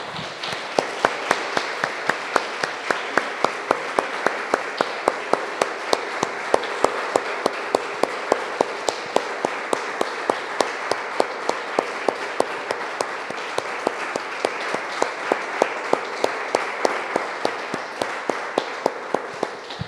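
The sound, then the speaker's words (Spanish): An audience applauds the Lord steadily for about twenty seconds, a dense, even wash of many hands clapping with crisp individual claps standing out throughout, no voices heard. “Damos un aplauso, hermanos, al Señor.”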